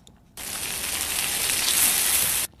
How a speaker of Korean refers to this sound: 이게 무슨 소리 같아요? 네, 맛있는 소리예요. 한 번 더요. 네. 치, 치, 네. 딱 두 번 하고 먹는 사람들 많잖아요. 고기 굽는 소리입니다.